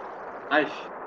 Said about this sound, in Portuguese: Essa explosão aí foi Spider-Man total.